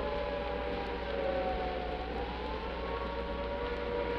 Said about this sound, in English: I'll just let you listen to the traffic and the sound of the siren for a moment. Just a few people here walking rather hurriedly toward the air raid shelters.